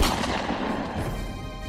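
A loud gunshot-like blast with a heavy, rumbling roar that keeps sounding steadily through the short clip, with no voices.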